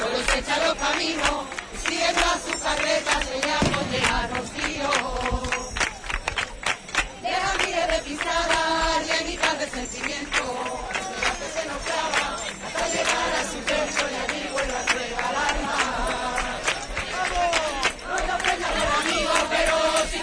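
A lively crowd claps steady rhythmic palmas along with sevillanas singing, accompanying each person who breaks into sevillanas; the sharp hand claps are loud and continue without pause amid a busy wash of voices.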